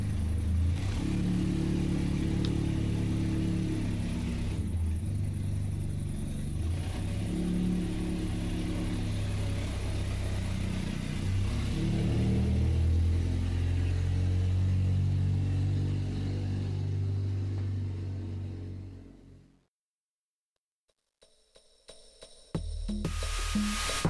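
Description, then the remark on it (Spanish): A car engine, just started, drones steadily with a deep, throbbing rumble while driving up a mountain, its pitch rising and dipping as it strains and shifts gears, then cuts off abruptly into silence before a few brief unrelated sounds. “Encendió el motor y seguimos subiendo la montaña.”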